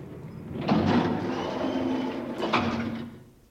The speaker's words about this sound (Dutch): Mooi, nou eerst die deur dicht.